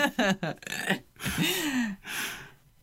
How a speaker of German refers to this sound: Boah, hier, ist, hier ist so viel Kohlensäure in dem Energy, muss ich jetzt aufstoßen.